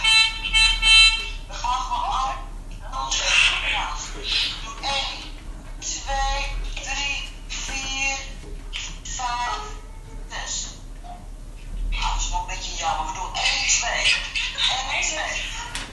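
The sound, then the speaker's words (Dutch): A choir rehearses over telephone connections, members singing from home with sheet music and phones in hand: several voices sing together in a thin, tinny, phone-quality sound, the held notes slightly out of step and blurred, continuing steadily with brief pauses between phrases. “Eh, het is dus een koorrepetitie. De leden zitten thuis met hun bladmuziek op schoot en de telefoon in de hand in te zingen.”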